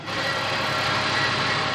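An angle grinder cuts steadily at a construction site in Ljubljana, Slovenia, a loud, continuous high-pitched whine with a harsh hissing edge that holds without a break. No one speaks.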